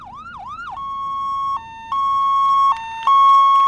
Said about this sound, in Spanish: Los primeros días chillaban impertinentes sobre el rumor común del tráfico. Ahora, solas, sin competencia, las sirenas suenan tan cívicas como necesarias. Una ha pasado a las ocho.